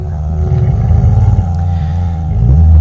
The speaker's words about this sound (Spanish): Escuché otra vez el zumbido del cuarto 4 pero esta vez mucho más profundo, como si te pararas al lado de una bocina en un concierto. Era una sensación que, me recorría todo el cuerpo